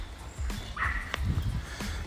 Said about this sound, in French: Il y a plein de chiens.